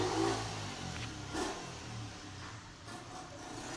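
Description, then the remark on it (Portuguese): A car engine revs outside, its low droning hum rising and falling over steady road noise, loudest at the start and then easing off into a continuous rumble. “Hoje o povo decide andar de carro, né?”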